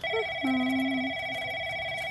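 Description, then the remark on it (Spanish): A telephone rings in doctor Forero's office with a steady electronic tone, bright high pitches holding throughout while a lower note briefly sounds, clear with no voices. “Hmm, la macaca sabe contestar teléfonos.”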